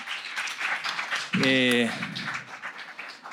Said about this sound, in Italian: facciamo già un, un, applauso e li ringraziamo.